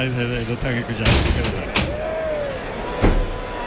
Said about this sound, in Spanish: Abre Hermes Cortés la puerta de Toriles.